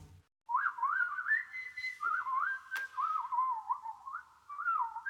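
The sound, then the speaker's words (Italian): Nightingale song imitated by a fairly loud human whistle on a fine, moonlit night: a wavering, warbling melody that runs almost continuously with a couple of brief pauses, with no talking. “Sentite gli usignoli?”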